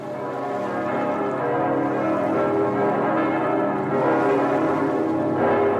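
Bells ring steadily and fairly loudly for several seconds, their tones overlapping into a rich, sustained wash of resonant chimes with no voices present.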